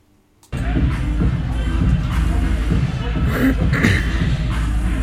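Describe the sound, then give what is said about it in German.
A dense crowd hubbub of many people gathered outdoors at the Demokratiebahnhof in Anklam for a political event, steady and fairly loud from the start after a brief silent moment, with indistinct overlapping chatter and shuffling throughout. “hier am Demokratiebahnhof in Anklam sind ganz viele Leute zusammengekommen, um ähm, ein politisches Statement zu setzen”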